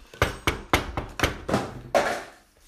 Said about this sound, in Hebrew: ערב אחד, בזמן שעלמה סיימה להתקלח ועמדה כבר ללכת לישון, נשמעה דפיקה בדלת.